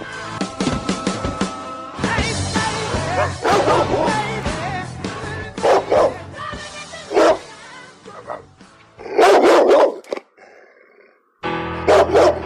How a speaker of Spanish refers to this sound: Aquí empieza a ladrar un perro negro.